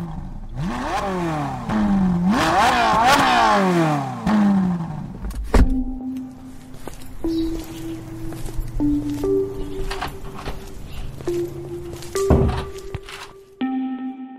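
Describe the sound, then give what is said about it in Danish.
A car engine accelerates hard as it joins the motorway heading into Copenhagen, its pitch climbing in repeated sweeps through a few gear changes, then settling into a steadier cruising drone with shifting tones. No one speaks. “Nu vil jeg køre ind mod øh, det store København, og jeg rammer sådan cirka motorvejen nu, så det passer faktisk rigtig godt.”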